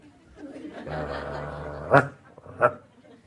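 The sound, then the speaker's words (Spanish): A person imitates a dog, starting with a low, drawn-out growling sound and then giving two sharp barks about a second apart, with faint laughter-like noises mixed in. “¿Conocen alguna casa en donde la gente ladra?”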